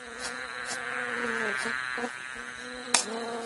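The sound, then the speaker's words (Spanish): Bees buzz steadily in a continuous droning hum, moderately loud, as they visit flowers in a garden for nectar, with brief clicks and a sharp tap near the end; no one speaks. “Las abejas acariciaban las flores para tomar de ellas el más sabroso néctar.”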